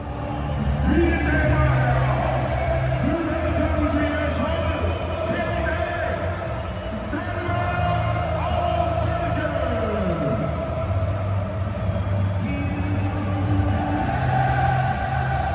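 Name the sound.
stadium crowd singing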